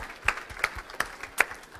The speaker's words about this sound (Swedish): Och eh, ska vi ge en applåd till barnen också? Härligt med alla barn.